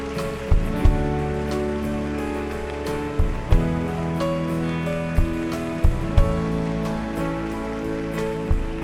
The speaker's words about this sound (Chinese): 首先呢，我们来欢迎这些爸爸妈妈们，给他们一个掌声好吗？还有他们的孩子，哇哦！ 让大家的掌声不要间断，好吗？